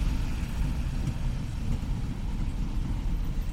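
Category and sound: vehicle, tram passing by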